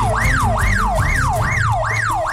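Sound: police siren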